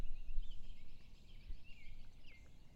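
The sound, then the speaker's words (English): Faint birdsong chirps and warbles high above a steady low outdoor rumble beside a still lake at dawn as the sun rises, the calls drifting in and out with no voices present. “The birds are singing.”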